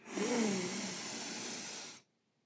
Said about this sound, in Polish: więc powiedzmy na sam początek 4 sekundy wdechu,